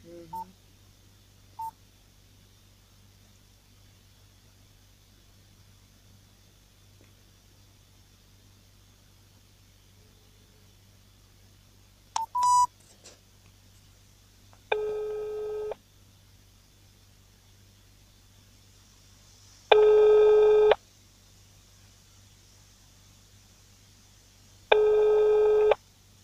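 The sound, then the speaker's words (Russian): A call is dialed to the chairman of garage cooperative GSK 21 in Biysk, Russia: a short burst of phone keypad tones, then three evenly spaced ringback tones, each about a second and a half, over a faint steady hum with no talking. “Звоним.”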